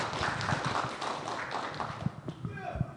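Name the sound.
audience clapping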